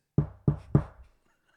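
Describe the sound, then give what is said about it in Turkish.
Three soft, low, quiet knocks, imitating a rooster knocking at the lower part of an apartment door, in quick, even succession, each thud dull, with a brief fading resonance before silence. “Dikkatlerini çekmiyor böyle Küçük desibelli bir ses yani şöyle. Ve kapının alt tarafından geliyorsunuz.”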